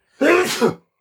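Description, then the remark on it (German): A single loud sneeze bursts out, a short voiced rush with a breathy, noisy tail, lasting just over half a second with silence around it. “Gesundheit. Gesundheit.”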